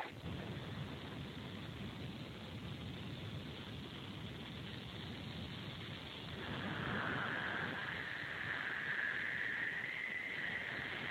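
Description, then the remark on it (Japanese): Higurashi cicadas call in a continuous chorus with a steady high buzzing band that grows louder partway through, heard outdoors on a fine morning over a broad noisy background, recorded through a phone call. “えー日暮らし泣いてますよ。”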